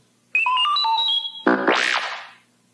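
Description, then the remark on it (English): A short run of robotic electronic beeps and chirps of R2-D2 from Star Wars, used as a page-turn cue in a Star Wars ABCs read-along book: steady warbling tones shifting pitch, then a buzzy, swooping squeal that rises and falls before fading. Clear, no talking. “You will notice time to turn the page when you hear R2D2 beep like this.”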